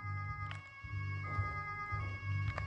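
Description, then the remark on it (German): A steady electronic police siren from a video game blares continuously, its tone stepping between pitches, over a low engine rumble with a few faint clicks. “Ich mache die Sirene mal lieber aus.”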